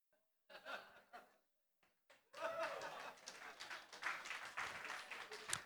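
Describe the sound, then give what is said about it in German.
An audience at a sermon bursts into laughter, then breaks into sustained, dense applause that continues steadily to the end, with scattered laughs mixed in. “Danke, ich habe den Applaus verdient.”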